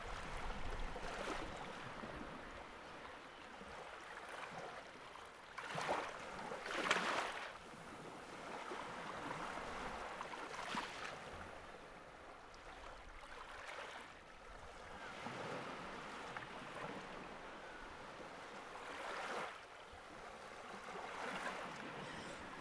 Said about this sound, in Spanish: Continúa escuchando el sonido del mar, suave, sereno, rítmico relajante.